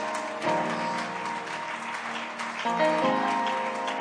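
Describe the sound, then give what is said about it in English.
A church audience claps steadily as praise to Jesus during an evening celebration, a dense wash of applause, with sustained organ or keyboard chords ringing underneath and shifting partway through. “Somebody give Jesus just a hand clap of praise.”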